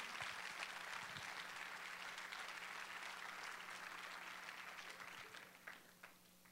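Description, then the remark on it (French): Sustained audience applause given as acclamation to God, a dense wash of many hands clapping steadily for several seconds before gradually thinning and tapering off toward the end, with no one speaking over it. “Je pense que ça mérite une main d'acclamation à notre Dieu.”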